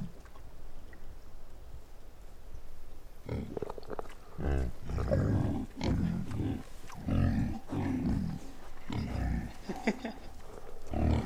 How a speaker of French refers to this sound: C'est un cochon. C'est un cochon. C'est un cochon. dirait qu'il y a quelqu'un qui marche dans la mer à côté et qui promène un cochon.